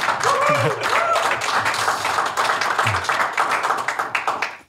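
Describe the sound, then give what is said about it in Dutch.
An audience in the De Ondernemer pitch room breaks into steady, dense applause for two entrepreneurs, many hands clapping loudly together for a few seconds before it fades out, with a brief voice and a cheer cutting through early on. “Geef ze een applaus.”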